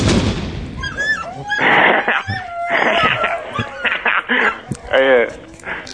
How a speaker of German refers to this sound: Oder beziehungsweise ich erschieße jetzt dir zuliebe mal noch einen Hund.